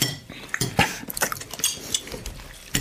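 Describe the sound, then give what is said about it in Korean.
A fork and knife clink and scrape against a plate as steak is eaten hurriedly, a quick, irregular run of bright, sharp taps. No one speaks over the clatter. “포크를 집어 허겁지겁 스테이크를 먹었다.”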